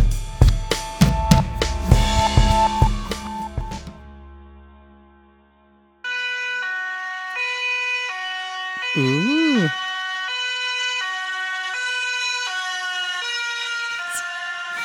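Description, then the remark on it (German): A loud two-tone siren passes by with a Doppler effect, wailing for several seconds and alternating between high and low pitches with a brief warbling swoop midway, following a burst of sharp percussive clatter and a short silence. “Das, das war der Doppler-Effekt.”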